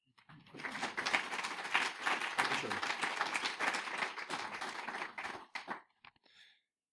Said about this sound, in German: vielleicht mögen Sie ihn noch mit einem netten Applaus begrüßen.